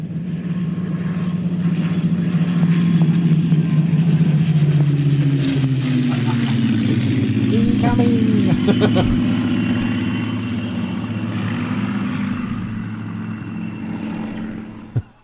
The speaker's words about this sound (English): Blimey, that was a bit low. low flying airplane.